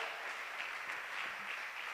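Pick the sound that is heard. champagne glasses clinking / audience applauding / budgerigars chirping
audience applauding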